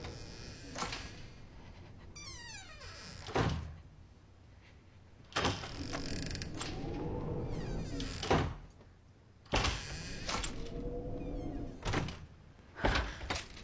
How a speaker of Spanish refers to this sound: Ana observa a Chris abriendo y cerrando una puerta.